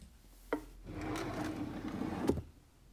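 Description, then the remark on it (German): A wooden drawer is pulled open with a knock, followed by about two seconds of steady rummaging and rubbing through its contents while searching for an old concert poster, then a second sharp wooden knock as it shuts. “Warte, ich habe das hier in der Schublade irgendwo.”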